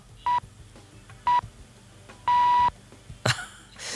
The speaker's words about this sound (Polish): Jak w polskim radiu. Jak w polskim Tylko radiu. trochę tak. więcej tych sygnałów. Trochę więcej sygnałów. I szkoda, że taki krótki y, sygnał jednak na koniec, tak? Mhm. Można gdzieś przeoczyć, no ale dużo tych pikań